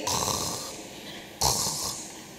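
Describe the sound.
A voice imitates the harsh, gurgling death rattle in a dying person's throat: a long raspy breath followed by a second, sharper burst, fairly loud, with no words spoken.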